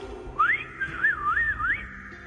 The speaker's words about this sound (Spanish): ¿Y qué cree que fue lo que hice? Fue silbar.